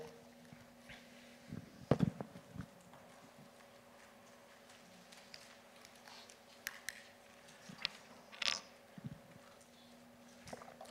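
Scattered soft rustles and papery flicks of many Bible pages as a church audience turns to the book of Jude, over a low hum, with a brief flurry early on and another cluster later, no one speaking.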